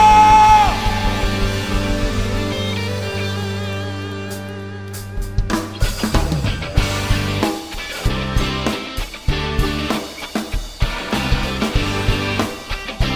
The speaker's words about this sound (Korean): 다시 한번 우리가 드릴 수 있는 최고의 감사와 영광에 큰 박수 올려드리면서 하나님 찬양하며 나갑시다. 할렐루야! 여러분 이게 우리가 드릴 수 있는 최선의 박수일까요? 다시 한번 할렐루야!